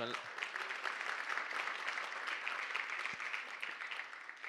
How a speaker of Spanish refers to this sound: En especial las madres, no sé cuántas madres hay en este lugar, cuántas madres hay aquí. un aplauso para todas las madres.